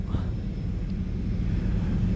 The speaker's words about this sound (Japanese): フランクフルトからドバイまでの飛行機の中で撮っておりますあのー、いつもと違うかもしれないのともしかしたら飛行機の音はねうるさいかもしれないのでちょっとどうなるか分かりませんが